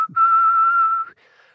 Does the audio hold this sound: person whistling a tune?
yes